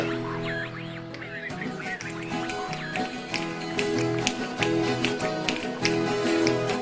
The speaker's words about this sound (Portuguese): Essa música que vocês estão ouvindo é um fandango. Que também é uma dança que vem do tempo em que os tropeiros que vinham do sul passavam por aqui. Eles tinham como costume, em suas paradas de descanso, dançar esse tipo de fandango.